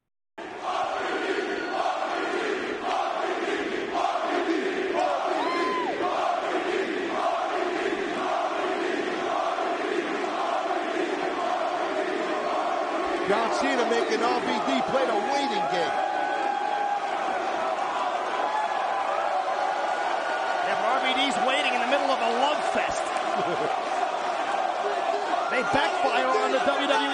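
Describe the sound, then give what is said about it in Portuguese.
A large arena crowd of ECW wrestling fans at One Night Stand chants in a steady, repeated rhythm, loud and unified, then the chant dissolves into a continuous roar of cheering and shouting voices. “These rabid ECW fans here tonight at One Night Stand.”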